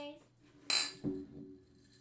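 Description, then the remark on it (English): A bright, ringing clink of glasses touching in a toast, followed moments later by a duller, softer knock as an icy plastic bottle taps against them; brief, with no talking. “That uh, icy plastic icy bottle doesn't clang quite like the glasses.”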